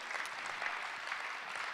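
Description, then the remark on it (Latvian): Steady applause from a church audience, a dense wash of many hands clapping at an even level throughout, with no voices standing out. “Dosim varbūt aplausus, lai viņi zinātu, mēs jūs mīlam.”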